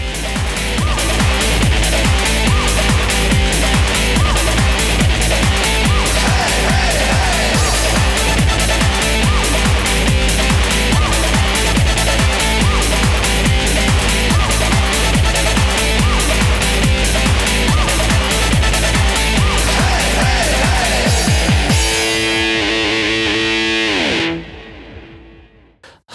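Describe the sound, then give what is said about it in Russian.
A loud, driving interstitial music jingle with heavily distorted synths over a steady, pulsing beat; after about twenty seconds it thins out into a filtered sweep and cuts off. No one speaks. “Э, друзья, давайте мы сейчас перебивку сделаем и будем прощаться.”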